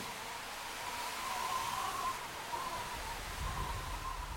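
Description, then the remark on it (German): A steady, rushing whoosh from a wind machine turned by a crank, its supports braced by two struts resting on shoe soles, imitating the long-drawn whistling and howling of wind, swelling slightly in the middle with a faint whistling howl, continuous throughout with no voices. “Man braucht den Apparat nur mit Hilfe einer Kurbel zu drehen, um so das langgezogene Pfeifen und Heulen des Windes zu imitieren.”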